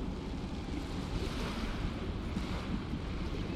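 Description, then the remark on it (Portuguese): A steady, full roar of open-sea waves churning under gusting wind, broad and continuous with no distinct breaks, loud with no voices. “Do outro lado, mar aberto, vasto, belo, violento.”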